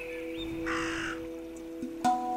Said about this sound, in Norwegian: Hver gang jeg går hit ned, så hører jeg ravnen, så jeg tror at, den, at det er en sånn varselfugl. Jeg har hørt den nå òg. Tror den passer på her nede.